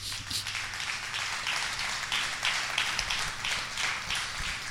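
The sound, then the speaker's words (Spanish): A church audience at Iglesia Peniel claps steadily for the King, in a dense, continuous wash of applause, with a low hum underneath and no clear voices over it. “¿Le puede dar un aplauso al rey?”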